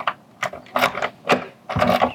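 A key turns in the lock of a house's front door in Los Angeles as someone leaves for the street: several sharp metallic clicks and rattles in uneven bursts, ending in a longer grinding clatter as the bolt slides shut.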